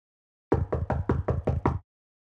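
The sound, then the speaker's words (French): Seven quick, evenly spaced knocks on the door of a straw cottage with a tiled roof amid fields, as Pinocchio and his father knock, fairly loud, with a solid low thud to each rap and no voices. “Ils s'engagèrent dans le sentier et allèrent frapper à la porte de la chaumière.”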